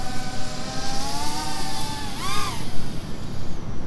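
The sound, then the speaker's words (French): A tiny drone flies very fast overhead, its whining, buzzing motor tone rising and falling in a quick swoop midway through as it speeds past, continuous throughout. “Il y a un drone qui vole au-dessus de moi.”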